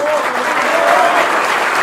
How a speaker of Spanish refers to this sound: Los aplausos